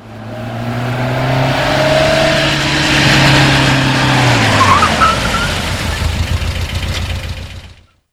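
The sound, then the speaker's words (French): A car engine hums, then winds down as tires crunch and roll to a halt as the car pulls into a small gas station; the rumbling noise continues briefly before everything stops abruptly. No one speaks. “Juste au moment où elle allait arrêter la voiture pour dormir sur le bord de la route, elle aperçoit une petite station d'essence décrivée. Elle s'y arrête.”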